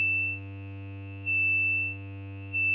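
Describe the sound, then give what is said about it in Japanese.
A sustained, buzzy analog synthesizer tone with its filter resonance boosted to emphasize a frequency band, giving a very noisy sound with a sharp, whistling resonant peak ringing on top, swelling and dipping in loudness in a slow pulse. It plays alone with no voices. “すごいノイジーな音になって”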